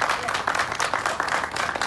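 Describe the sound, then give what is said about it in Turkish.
Dense, continuous applause from people at windows and balconies across Turkey at 21:00, clapping for health workers during the Covid-19 pandemic; a steady crackle of overlapping claps with no pauses, loud and unbroken throughout, with faint voices mixed in beneath the clapping. “Saatler 21.00'ı gösterdiğinde herkes pencereye balkona çıktı, sağlık çalışanlarını var gücüyle alkışladı vatandaş.”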